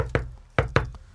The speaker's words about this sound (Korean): 밖에서 노크 소리가 들렸습니다